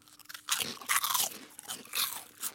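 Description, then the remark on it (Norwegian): Crisp crunching of bacon crisps or popcorn being chewed, in repeated bursts of loud, bright crackling with short pauses between bites, no talking. “Og så, så bare spiser vi i vei, og så hører vi om dette er irriterende når du er på kino.”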